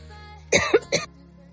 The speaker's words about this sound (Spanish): no me dejas ni toser.